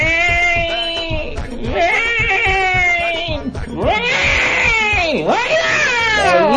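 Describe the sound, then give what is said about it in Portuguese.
A person mimics a cat with drawn-out, wavering, loud meows and yowls, rising and falling in pitch over several seconds with no other talking. “um belo de um gatito, um exemplar felino para lá de perfeito que tem aqui no nosso Madrugada com Pimenta”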